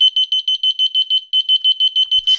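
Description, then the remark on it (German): A loud, shrill electronic alarm beeps in a rapid steady pulse, high-pitched with harmonics, pausing briefly mid-way before resuming, then a short burst of noise and faint thumps at the end. The alarm comes from a second wireless receiver placed farther away, set off by pressing the second button. “Jo, das ist der der zweite Empfänger, den ich weiter weggelegt habe, drück nochmal.”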